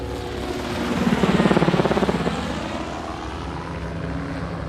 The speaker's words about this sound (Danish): på et tidspunkt kommer der en helikopter, og det er ligesom om, men den forsvinder jo igen. Den observerer bare, der flyver ude på havet, ser os, der sidder der hundredvis af nødstede mennesker, som ikke har nogen steder at tage hen.